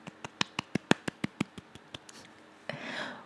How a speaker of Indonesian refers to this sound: Oke. Saya menunggu tepuk tangan kalian semua.